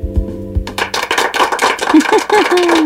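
A burst of canned applause played as a sound effect in a studio, many dense overlapping claps, starts abruptly after a couple of low thumps and continues loudly to the end, with faint pitched cheers or whistles rising through it.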